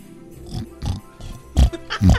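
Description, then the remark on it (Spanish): A person imitates a pig with a series of short, snorting oinks, several grunts in an uneven rhythm growing louder toward the end. “Para poderte traer el motor para tu camioneta, quiero que le hagas el ruido como de un puerco.”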